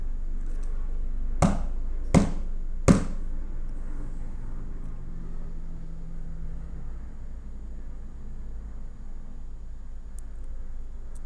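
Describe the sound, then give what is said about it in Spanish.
Three sharp knocks on a door, evenly spaced about a second apart, loud against a steady low background hum, followed by several seconds of quiet rumble. “Después de unos minutos volvieron a tocar la puerta tres veces.”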